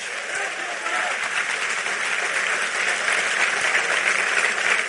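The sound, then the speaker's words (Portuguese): A crowd claps steadily and loudly throughout, a dense, sustained wash of applause from many hands with no pauses and no clear voices standing out. “Então aplaude ele aí.”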